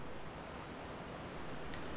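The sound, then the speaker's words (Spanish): A steady, rushing wash of surf rolls on without pause, broad and hissing like waves spilling onto a shore, with no voices present. “Simplemente el reventar de las olas o la rugosidad de los árboles la unen a una tierra”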